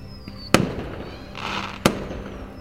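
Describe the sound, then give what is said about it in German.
Two sharp fireworks bangs about a second apart, each ringing out briefly, with a crackling, hissing rumble between them and a faint high whistle at the start and end. “Wie viel Schwarzpulver sich wohl unter dem Gebäude befindet, um solch ein Meisterwerk von Feuerwerkskunst zu zaubern.”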